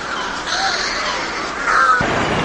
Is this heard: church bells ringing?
no